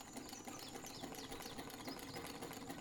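A sewing machine runs steadily for a few seconds, a fast, even mechanical chatter with rhythmic clicking, close and fairly loud with no voices.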